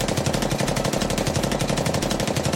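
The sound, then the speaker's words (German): A sustained burst of rapid, loud automatic gunfire emptying a full magazine, with dense evenly spaced shots hammering continuously for a few seconds without pause and no voices. “setzt der verbliebene Konglomeratskopf zum Schuss an und leert das komplette Magazin.”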